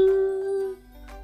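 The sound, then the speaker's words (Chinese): A single bright bell ding rings out and sustains with a steady, shimmering tone, then fades over about a second, with no one speaking; a fairground bell rung when a button is struck with a hammer as hard as possible, in a Peppa Pig story. “猪妈妈用最大的力气砸那个按钮，铃声大作，叮！”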